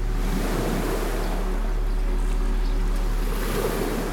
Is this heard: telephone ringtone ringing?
no